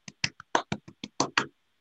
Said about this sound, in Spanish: Bravísimo. Aplausos. Efectos especiales.